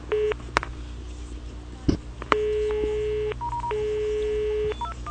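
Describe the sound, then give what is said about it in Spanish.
Telephone keypad tones dial a call back: a series of steady electronic beeps of uneven length, some long and held, with a brief crackle partway through and no voices. “En esta ocasión, tuvimos suerte y cuando devolvimos la llamada, sí nos atendieron.”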